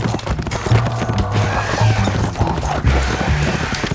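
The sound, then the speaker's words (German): Rapid galloping hooves pound in a fast, continuous rhythm during a chase, loud, mixed with a dense rumbling backdrop and low sustained tones throughout. “Mit so einem Esel nehmen wir es doch locker auf. Andale, andale!”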